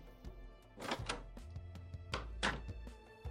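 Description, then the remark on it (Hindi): The metal gate of a house opens after the doorbell is rung, with two heavy clanking, rattling bursts over a low mechanical hum, moderately loud, with no one speaking. “मैं उनके घर गया और घंटी बजाई गेट खुला”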